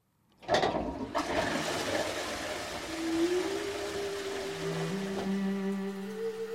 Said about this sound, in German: Das geruchlose Klo mit Wasserspülung ist erfunden, so wie wir es heute kennen und benutzen.